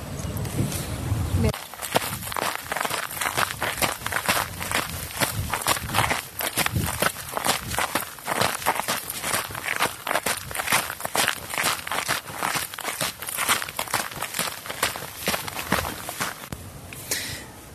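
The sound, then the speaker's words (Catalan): Steady footsteps of a couple from Blanes crunch along outdoors at a walking pace, fairly loud, with soft talking voices now and then in the background. “continuem passejant per aquí amb, amb … i amb …”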